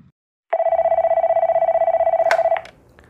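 A telephone rings once with a loud, rapid trilling buzz held at one steady mid-high pitch for about two seconds, then cuts off with a click, leaving faint background noise.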